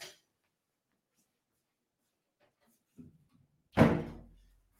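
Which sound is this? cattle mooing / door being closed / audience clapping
door being closed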